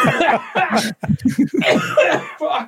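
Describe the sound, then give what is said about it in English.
A loud coughing fit: a rapid run of harsh, rasping coughs with barely a pause, going on for a few seconds with a few short breaths caught in between. “Sorry, the pestilence has Is got it? me.”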